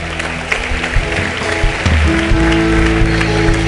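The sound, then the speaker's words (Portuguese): A standing audience at a church service applauds the Lord steadily and loudly, a dense crackle of many clapping hands that lasts the whole time, with sustained low keyboard or organ tones playing underneath. “E aplauda ao Senhor.”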